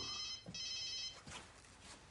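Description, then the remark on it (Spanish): A mobile phone, taken from a man's pocket, rings with a high, warbling electronic tone in two quick bursts lasting about a second, then falls silent, leaving only faint rustling and background hiss. “George contesta al móvil.”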